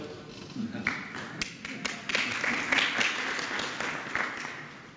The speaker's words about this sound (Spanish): Aplauso.